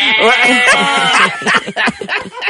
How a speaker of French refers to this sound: Ainsi qu'une chèvre.